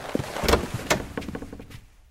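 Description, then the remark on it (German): A door opens: a latch clicks, then a short scraping swish of movement followed by a few light knocks and rattles that fade into quiet. No one speaks. “Hier vorne ist es, hinter dieser Tür. Lassen Sie mich vor.”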